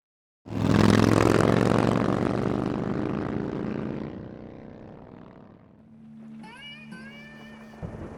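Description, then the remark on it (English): A new Harley motorcycle engine roars to life loudly as it is ridden home, a deep rumbling rev that gradually fades as if pulling away, leaving a low idle hum and a faint whine at the end. “I'll give it a good think while I'm driving home on my new Harley.”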